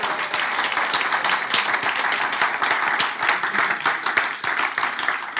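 Steady, dense applause from an audience, many hands clapping at once in a continuous crackling wash that holds an even loudness throughout without pause, welcoming a special guest, a visiting friend of the speaker.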